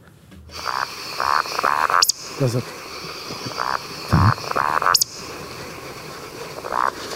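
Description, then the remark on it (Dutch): A deep, low bird call plays through a small phone speaker, repeating a few times in short bursts amid higher chirping notes, with a person briefly speaking. “Dus dan heb je dat hele diepe geluid, dat is een Ja, ja, dat kan je misschien meer Van af de autobaan.”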